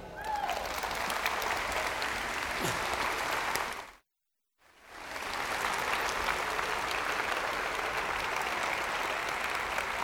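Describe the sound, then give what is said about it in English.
Sustained audience applause at the end of a talk on the Catholic faith, dense and steady clapping broken by a brief half-second of silence before the clapping resumes just as loudly. “Now you can clap.”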